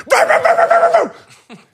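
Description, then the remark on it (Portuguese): A voice imitates a quiet dog at a café terrace table suddenly barking: a loud, rapid burst of several harsh barks, trailing off, then one short yip after a brief pause. “Estou numa esplanada, passo ali numa mesa que tem um cão e o cão está quieto e de repente.”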